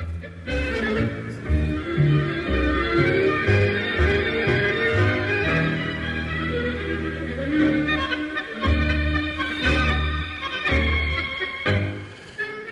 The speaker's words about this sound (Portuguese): a música não tem, não tem letra. Então ela vai é, instrumental até o fim.